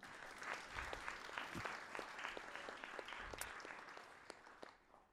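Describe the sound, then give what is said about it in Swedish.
An audience applauds itself at the end of an evening event, with dense, steady clapping that holds for several seconds before tapering off at the end, with no voices over it. “Den har varit fett trevlig och jag har haft en fett nice publik, så en applåd till er själva.”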